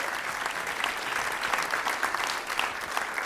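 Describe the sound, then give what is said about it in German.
An audience in Hamburg on Halloween evening claps steadily for a participant's question, a dense wash of many hands with no pauses, holding fairly even loudness for a few seconds with no one speaking over it. “Einen Applaus nochmal für diese schöne Frage.”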